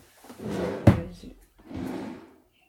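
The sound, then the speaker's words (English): A drawer slides open with a rumbling scrape and a sharp wooden clunk partway through, followed by a second shorter slide; no one speaks. “I've got it in my drawer here.”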